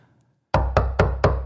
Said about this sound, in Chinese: 刚才的孩子哭，女人哭，现在声音也已经没有了，就是一帮人在那儿乱敲门。